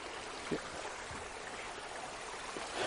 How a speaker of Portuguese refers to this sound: Vamos ficar aqui um pouquinho, aqui tem um sonzinho gostoso de cachoeira, né?